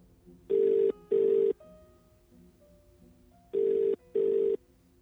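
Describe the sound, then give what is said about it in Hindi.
A telephone rings in two double bursts, ring-ring, a pause, then ring-ring again, loud against a quiet background with no one speaking, as a call is placed to the electricity department in Balwara. “इनके गुस्से को देख सरपंच ने पंचायत मंत्री से बिजली विभाग बलवाड़ा को तुरंत फोन लगाने को कहा”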